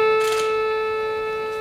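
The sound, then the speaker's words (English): A single synthesized saxophone tone, with simple attack and decay added, sounds alone with a quick, bright attack, then holds steady and slowly fades away. No voices are present. “I could put some very simple attack and decay in, in it, and it sounds like this.”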